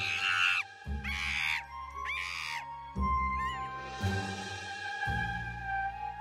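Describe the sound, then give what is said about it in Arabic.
A monkey lets out a series of harsh, raspy screams in quick repeated bursts, loud, over a steady low background hum. “مثل انه اذا بتسمع صوت قرد عم بيصرخ بصوت خشن ومخيف هذا بيعني انه مبسوط وعم بضحك”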